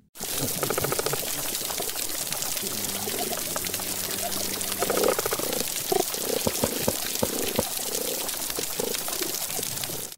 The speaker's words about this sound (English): And here's the sound of a healthy reef that they played at those 22 sites.